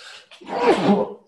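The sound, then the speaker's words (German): A single loud sneeze: a short breathy intake followed by a sharp, forceful burst that tails off quickly, with no talking over it. “Gesundheit”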